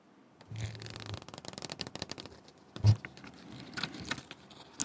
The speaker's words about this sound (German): Es ist wichtig, dass man die Seiten auch hört.